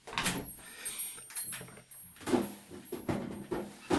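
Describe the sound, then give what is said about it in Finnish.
A home refrigerator door is pulled open to check for caramel sauce, with a soft thud and a few clattering knocks and rustles of items shifting inside, moderately loud with no talking. “Tai itse asiassa katsotaan tänne mun jääkaappiin.”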